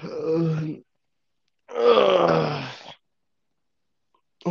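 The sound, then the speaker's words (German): Two drawn-out groans from someone stretching, the first short and low, the second longer and fuller with a sliding pitch, separated by a brief pause, with no talking. “zu rülpsen, jetzt fängst du an, dich rumzustrecken.”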